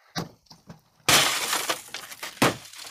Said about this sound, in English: are smashing up cars to let off steam.